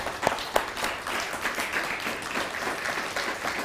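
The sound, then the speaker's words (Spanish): An audience applauds for God, called "the Almighty", a dense rattle of many hands clapping at once, with a couple of sharper claps standing out early on before the sound settles into an even wash. “Pues dale un fuerte aplauso entonces al Poderoso.”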